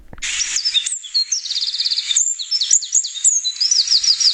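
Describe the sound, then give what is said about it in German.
A tiny wren sings loudly, pouring out a rapid, high-pitched stream of trills and sharp chirps that runs without pause for several seconds. “Dieses Tier ist sehr laut und das glaubt man nicht wirklich, weil das ist ein Zaunkönig.”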